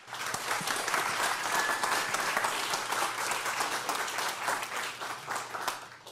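Steady applause from an audience welcoming a speaker to a talk about his new book, dense overlapping claps sustained at an even level for several seconds, with no voices standing out.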